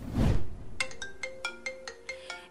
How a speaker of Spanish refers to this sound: Y ya por último amigos vamos a escuchar este audio que sirve de alarma cuando te llama tu mamá.